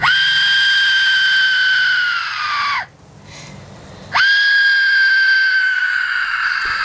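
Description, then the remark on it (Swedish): Two long, loud, piercing shrieks from an Aztec death whistle, an instrument made of skeleton bone, each a harsh scream-like blast that sags in pitch at the end, with a brief breathy pause between them. “är det nu aztekerna, alltså som har ett visst instrument som är gjord av skelett som, som på något sätt signalerar helvetet.”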